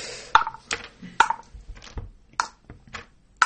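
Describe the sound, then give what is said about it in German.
A series of sharp clicking clatters, several bright hard impacts spaced irregularly over a few seconds, like dice dropped one by one into a cup, with no talking. “Er hört doch schon, wie viel du in den Becher wirfst.”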